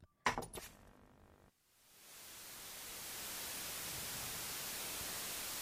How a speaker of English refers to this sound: Ooh, it's like TV static. It's scary.